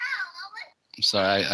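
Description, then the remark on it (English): A young child's high-pitched voice chatters briefly, trying to come talk to an adult, followed by a short pause and then the adult speaking louder. “I got I got one of those children trying to come talk to me right now.”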